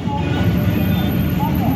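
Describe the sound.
Red tram cars in Casablanca run along their rails with a steady, smooth low rumble that stays fairly loud throughout, with faint murmuring voices in the background.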